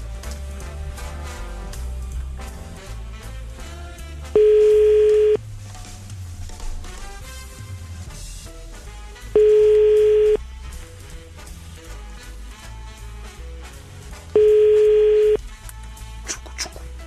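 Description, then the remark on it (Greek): A telephone ringing tone sounds three times, each a steady mid-pitched one-second burst spaced about five seconds apart, over busy background music, and the call goes unanswered. “κάναμε την προσπάθειά μα, αλλά δεν ακούω να το σηκώνει.”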